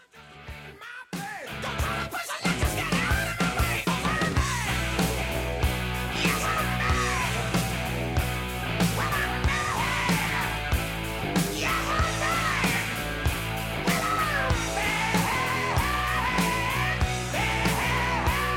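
A hard rock song plays loud and steady after a brief quiet start, with driving drums, distorted electric guitar and a raspy, shouted-sounding lead vocal.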